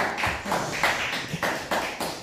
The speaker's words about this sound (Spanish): Bueno, nos damos un fuerte aplauso al Todopoderoso.